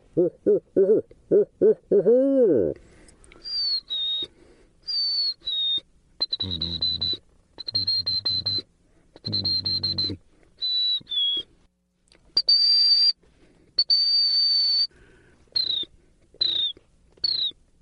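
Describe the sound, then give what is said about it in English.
A man whistles a string of calls inside a car, starting with low hooting notes, then shifting to high, clear whistles in short repeated bursts with brief pauses, and nobody talking. “I ask him to whistle. And taking a breath, he begins his repertoire.”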